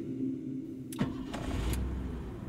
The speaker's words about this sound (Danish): Bettina Jensen ankommer til polititorvet i sin lille bil.